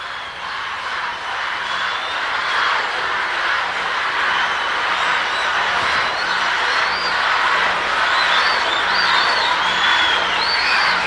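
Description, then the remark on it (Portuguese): A concert audience shouts and cheers for the performers to come back, in a dense, steady roar that stays loud for the whole stretch, with high whistles and sharper yells rising out of the noise toward the end. “Aí vocês gritam mais, e a gente volta.”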